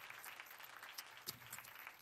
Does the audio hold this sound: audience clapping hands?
yes